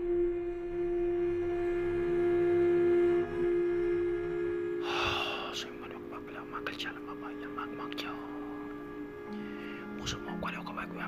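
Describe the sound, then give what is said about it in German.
A voice imitates the eerie whispering of a mysterious thing, breathy hissing syllables in an uneven rhythm over a steady low hum, with a few sharp airy bursts and gasps standing out. “Auf jeden Fall, dieses Ding hab angef angefangen zu flüstern und es klang genau so.”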